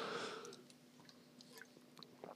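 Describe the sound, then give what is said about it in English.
A quiet sip of iced black coffee (Boss coffee by Suntory, an iced long black): a brief breathy slurp at the start, then soft wet mouth clicks and a swallow, with no talking. “I'm going to have a quick sip of my uh, my coffee, black coffee, boss coffee.”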